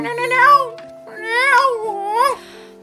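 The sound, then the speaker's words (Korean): A cat meows loudly three times in a row, each call long and wavering with a rising-then-falling pitch, over a low steady humming tone underneath; the cat began crying wildly as a driver recited a poem. “근데 기사님이 시를 읊자마자 고양이가 미친 듯이 울기 시작했습니다.”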